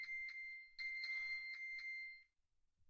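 A phone's locator alarm, triggered by long-pressing the upper left button of a smartwatch to find the phone, blares: a loud, high electronic tone pulsing in rapid repeated beeps for about two seconds, then cutting off into quiet.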